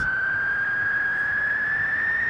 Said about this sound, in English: The the siren in the background, the wind. windy kind of thing, which is like now an effect.